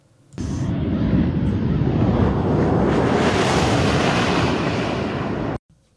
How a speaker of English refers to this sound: Here is what it sounded like if you were standing on the side of the runway as this modified plaid zoomed by.